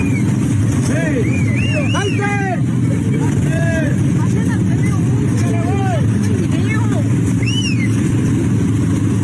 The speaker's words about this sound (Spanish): Le chiflaban. Sí, o sea, para que, para que se salieran del carro y llamarle la atención y tratar de, darle como tipo de cuerda.